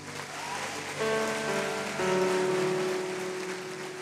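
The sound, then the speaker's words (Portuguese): A large audience applauds Jesus steadily in a dense, sustained wash of clapping, with held musical tones entering underneath partway through and no one speaking. “Você pode aplaudir Jesus?”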